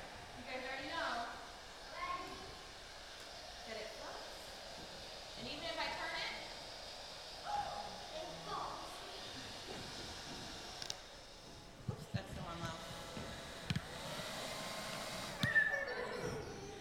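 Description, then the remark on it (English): A hair dryer blows with a steady, breathy whoosh throughout, its moving air holding a ball up, while people talk over it and a few sharp knocks sound near the end. “Okay, so we have our hair dryer.”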